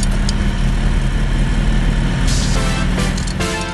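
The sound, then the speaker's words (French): A Citroën Ami 6 car engine from the 1960s idles steadily, a low continuous throbbing rumble with no speech, its pitch roughening slightly near the end as if revved. “ce bruit incroyable, incroyable. Nostalgie, petite Madeleine de Proust quand même”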